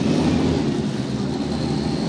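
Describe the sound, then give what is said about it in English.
A steady, loud roar of Indy Lights Series race car engines refiring together at Road America, a dense continuous drone with no pauses or distinct revs. “And as you can hear in the background, the engines have refired for the Indy Light Series presented by Cooper Tires here at Road America.”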